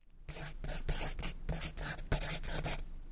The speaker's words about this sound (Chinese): 石头又把铅笔的头放进嘴里润了润，用更大的字在旁边又写了一行。